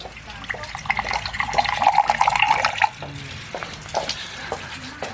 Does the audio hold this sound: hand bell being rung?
no